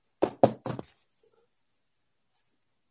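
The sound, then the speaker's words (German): Three firm knocks on a wooden door of a hotel suite at the Radisson Blu in quick succession, fairly loud, followed by a quiet pause with a faint shuffle; no one speaks. “Und äh, ja, jetzt klopfe ich mal an seiner Tür und mal gucken, ob er mich jetzt verarscht hat oder wirklich da ist.”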